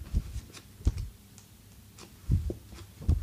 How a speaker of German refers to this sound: Hört ihr das eigentlich, wenn ich hier die Seiten die ganze Zeit umblättere?